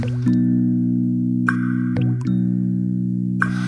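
A song intro plays: a steady, sustained low synth chord with a handful of bright, water-drop-like plucks and short gliding accents landing at irregular intervals. No voices.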